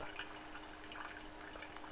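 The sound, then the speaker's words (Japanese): A quiet, steady trickle of hot water poured from a Kalita coffee kettle onto store-ground coffee in a paper filter for drip coffee, with faint bubbling and a few small drips, continuous for the whole moment. “そういう粉に対してこのお湯を注いだ時にね温度が高すぎるとボコボコボコって泡が出るのよ。”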